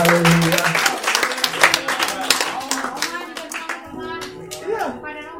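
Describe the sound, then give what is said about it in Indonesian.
A crowd at a worship gathering claps steadily for several seconds in applause for the elderly men (opa-opa), a dense patter of many hands, with voices murmuring and calling out over it as the applause gradually thins toward the end. “Tepuk tangan buat opa-opa.”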